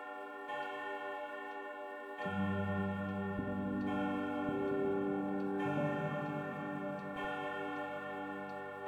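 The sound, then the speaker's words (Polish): A clock strikes twelve in slow, resonant chimes at a steady pace, each tone ringing out and overlapping the last, with a low ticking hum running steadily underneath; no voices. “Poczekał, aż zegar wybije dwunastą i zastukał kamieniem.”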